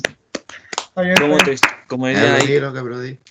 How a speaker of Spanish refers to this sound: Estamos de vuelta, cabros. Vamos a hacer un aplauso. Hagamos aplausito. Ya, vamos. aplausito.